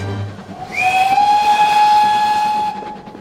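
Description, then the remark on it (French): A steam train's whistle sounds one long, loud blast that slides up in pitch and then holds steady, with a constant hiss of steam running beneath it and no one speaking. “Au même instant, le train de Miss McGillicuddy ralentit à nouveau, tandis que l'autre prenait de la vitesse.”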